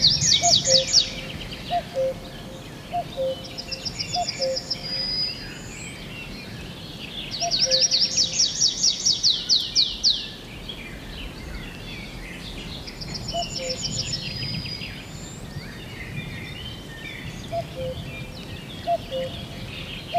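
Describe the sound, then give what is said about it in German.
A dense chorus of many birds singing at once at a forest edge outside Germany, with rapid trilling bursts high up and repeated clear whistles lower down, steady throughout and free of any human noise, voices, engines or aircraft. “Kein Waldrand in Deutschland mit einem dermaßen ausgefüllten Vogelkonzert und ohne, vor allem ohne akustische Einflüsse von uns Menschen, ohne jegliches entferntes Motorengeräusch, ohne Flugzeug.”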